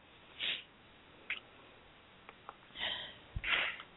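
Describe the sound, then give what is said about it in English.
A few short, breathy bursts like stifled sneezes and sniffs, soft, spaced irregularly with quiet gaps between them and no talking. “So if I sneeze a few more times, I do apologize.”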